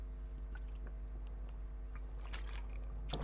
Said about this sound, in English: I just need to have some water.